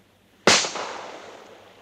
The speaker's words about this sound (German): Hey, Donnerwetter. Kein schlechter Schuss.